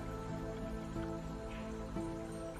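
A stream in a park babbles and trickles steadily, a soft continuous wash of flowing water with small splashy droplet textures, fairly quiet and even throughout, with no voices.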